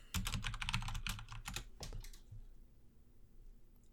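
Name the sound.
computer keyboard typing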